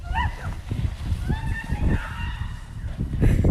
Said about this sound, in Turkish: Gece saatlerinde ise Kuğulu Park'ın havuzu buz tuttu. Kuğular ve ördekler kar altında havuzun tadını çıkarmaya devam etti.